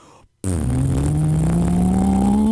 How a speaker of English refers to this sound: And so we put it on the dyno. We had the new top end. We had the new cam. We had the uh, the the new uh, the new pistons. Everything's the engine's done, and it's like, all right, let's throw on the dyno see what it does. We do one run